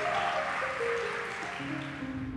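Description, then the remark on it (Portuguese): An audience applauds Jesus steadily, a dense wash of many hands clapping at once, with sustained keyboard-like tones ringing underneath throughout. “Quem crê, dê um aplauso para Jesus, por favor.”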